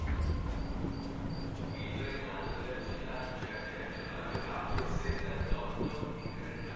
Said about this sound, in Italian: Anche questo luogo, il secondo sottopasso, è un luogo particolare della stazione, poco frequentato, molto silenzioso e in alcuni periodi dell'anno, come questo, è possibile anche sentire i grilli, nascosti da qualche parte tra le tavole del soffitto.